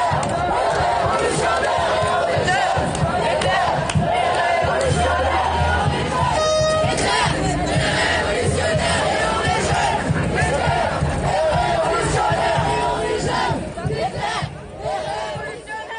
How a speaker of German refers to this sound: Und wie sich so ein Protest anhört, das hören wir uns jetzt einmal kurz an, denn der Genosse hat uns auch ein paar Sprachnachrichten geschickt und äh, das hören wir uns einmal kurz an, wie sowas klingen kann.